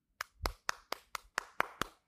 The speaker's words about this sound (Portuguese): E bati palmas.